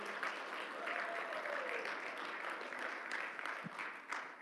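A round of applause from a group of people for a new worship leader, steady clapping that fills the whole span with a dense, even patter and no pauses.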